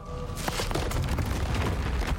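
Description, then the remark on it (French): A loud, continuous roar of blasts and rumbling, with repeated sharp booms and crackling bursts over a dense low rumble, and no voices. “Et il y a eu une explosion dans euh, une usine nucléaire notamment.”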